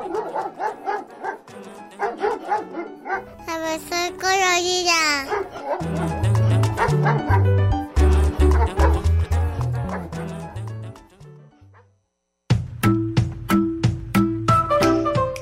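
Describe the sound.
A dog barks repeatedly in short, close bursts, with some higher yips and whining, while music with a steady bass line plays underneath and a brief voice is heard.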